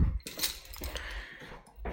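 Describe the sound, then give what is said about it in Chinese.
Keys jangle in a short burst of bright, irregular metallic clinks and rattles over about two seconds, with no voices, as someone climbing the stairs to their home takes out the keys. “慢慢的走向我的家，拿出钥匙，”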